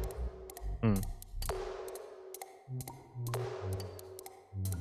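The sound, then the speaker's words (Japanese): Hollow, ringing "pon-ka-pon" percussion hits knock in a loose repeating pattern, panned left and right, over low tones in fast reggae-style background music, each strike decaying with a tonal ring; a voice murmurs briefly once. “カポンカポン。しかも左右にパン刺しとんな。”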